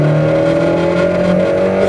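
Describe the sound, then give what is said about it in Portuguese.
A car engine revs loudly, its rough, out-of-tune drone holding steady with a slight wavering pitch for the whole two seconds, with no voices. “Diz que ele tá desregulado, hein? Tá sem acerto esse carro.”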